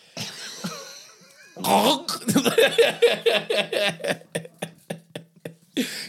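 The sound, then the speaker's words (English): A voice imitates the sound a man makes when he swallows, making a loud run of throaty gulping pulses in a steady rhythm that trails off, with a soft breathy sound before and one last burst at the end. “what do the sound is when he swallows?”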